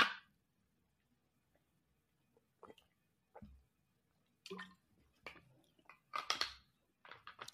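Sips of sparkling water: a few short, wet slurps and swallows spaced irregularly over several seconds, fairly quiet, with no talking in between.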